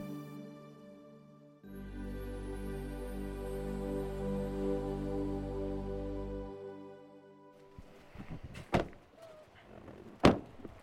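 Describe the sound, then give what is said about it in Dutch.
A car engine hums steadily for several seconds and then cuts out, followed by two sharp car door slams a couple of seconds apart amid some faint rustling, as people get back into the car for the drive to Rovaniemi. “Als we weer terug in de auto zitten naar Rovaniemi, voelt alles opeens relatief.”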